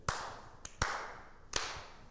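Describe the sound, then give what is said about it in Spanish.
A few sharp hand claps, made while clapping along to music, three strong and one softer, at an uneven pace, each leaving a brief ringing tail. No voices are heard. “Si, si en círculos mientras aplaudes, ya eres señora, sin importar que tengas pene.”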